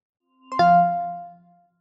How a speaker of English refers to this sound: That's going to be the startup chime.